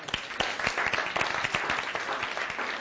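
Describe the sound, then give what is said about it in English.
A crowd at a Christian worship gathering applauds steadily, many hands clapping at once in a dense, continuous patter with sharper individual claps poking through, fairly loud and sustained throughout. “Come on, let's give it a clap.”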